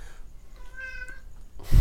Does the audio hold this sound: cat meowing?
yes